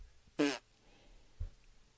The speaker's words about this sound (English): You farted your way through that intro too.